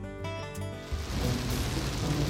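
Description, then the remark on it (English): Heavy morning rain in the Allegheny Mountains, 120 miles southeast of Charleston, sets in as a dense, steady hiss after a brief tonal hum at the start, at an even, moderate loudness with no voices. “There's heavy rain this morning, and the area is prone to floods, but Mark's not worried.”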